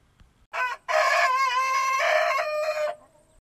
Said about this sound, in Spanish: Enseguida, la mujer se dirigió hacia el patio en busca de las gallinas.